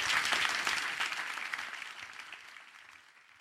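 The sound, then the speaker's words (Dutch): An audience claps steadily for the speakers: a dense crackle of many hands that starts full and gradually thins and fades over a few seconds, with no voices heard. “Graag een applaus voor hen.”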